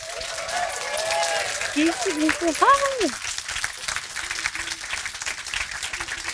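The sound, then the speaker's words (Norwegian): An audience applauds steadily as artist and author Ella Marie Hætta Isaksen is welcomed onto the stage, a dense wash of clapping that holds fairly loud throughout, with a few rising and falling whoops and cheers breaking out near the middle. “Men fordi hun er artist og altså har vært eh, bejublet av hele Norge, så forventer hun en enorm applaus fra dere.”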